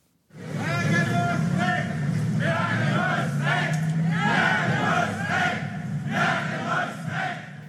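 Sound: protest crowd chanting slogans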